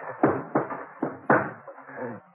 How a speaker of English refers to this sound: I carried him up to the front door and gave it a couple of kicks.